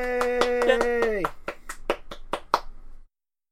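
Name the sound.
hand clapping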